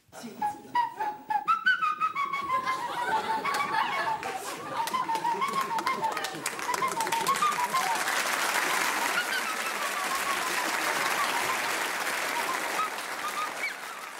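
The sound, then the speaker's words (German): A wavering, breathy whistled tune plays for several seconds, produced with a toe held in the mouth, then a studio audience breaks into loud, sustained applause and cheering that fills the rest. “Kann man auf seinen Zehen pfeifen?”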